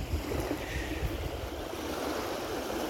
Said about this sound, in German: Vielleicht hört ihr im Hintergrund schon ein paar Wellen. Und das ist übrigens der Ammersee.